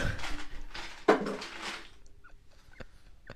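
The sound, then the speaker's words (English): A can is wrenched loose from a frozen ice bucket: gritty scraping and crunching of ice, one sharp crack as it breaks free, then a few light metallic clinks. “Sorry, that can was frozen to the bucket.”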